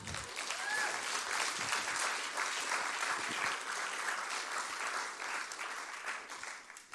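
An audience claps steadily for about seven seconds, a dense, even wash of many hands with no voices over it, tapering slightly at the end.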